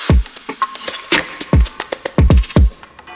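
A church bell rings with quick, uneven strikes, about a dozen in a few seconds, each hit loud and sharp with a short ringing decay. No one speaks.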